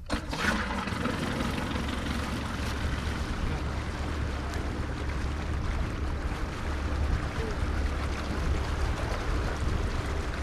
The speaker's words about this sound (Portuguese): O barco deixa o cais na Fuseta e segue rumo ao coração da Ria Formosa. Primeiro em suaves afagos, depois à medida que ganha velocidade, abrindo sulcos cada vez maiores no espelho de água.